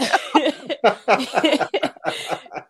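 A loud run of repeated coughs and throat-clearing, coming in rough uneven bursts for a few seconds with brief gaps between them.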